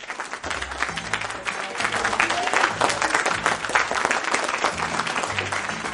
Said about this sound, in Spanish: Ya, el último, el último aplauso, el último aplauso.